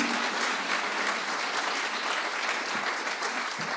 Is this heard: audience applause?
yes